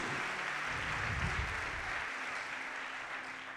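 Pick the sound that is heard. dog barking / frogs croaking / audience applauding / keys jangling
audience applauding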